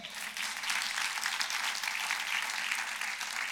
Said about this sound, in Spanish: Un aplauso al Señor.